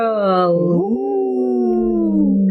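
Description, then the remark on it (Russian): A person howls like a wolf, a loud, sustained vocal wail that dips and rises in pitch before holding steady, with no other sounds. “А у меня как это, как у волка, вот, да.”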